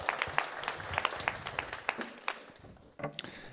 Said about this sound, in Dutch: Ja, een applaus geven? Ja. Mooi.